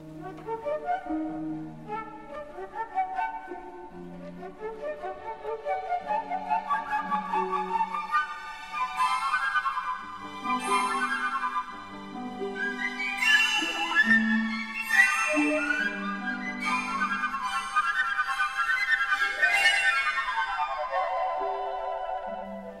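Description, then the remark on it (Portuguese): A fast, bright orchestral woodwind passage led by piccolo, from Benjamin Britten's variations on a theme by Henry Purcell, a piece written to present the instruments of an orchestra; rapid runs and trills climb high over steady lower accompaniment, played continuously at moderate loudness with no talking. “Vamos escutar agora uma outra possibilidade sonora, de caráter vibrante e veloz, tocando junto com o um pícolo.”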